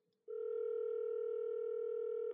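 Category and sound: signal or alarm, telephone ringing tone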